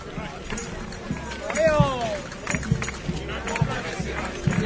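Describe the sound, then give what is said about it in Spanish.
Horse hooves thud dully on a sandy street in an irregular, steady stream during a romería pilgrimage procession entering Calle Alborea, with crowd chatter in the background and a brief high whinny-like call partway through. “Pero yo creo que en cualquier romería, estos caminos de arena, estos porches donde se amarran los caballos, las bestias,”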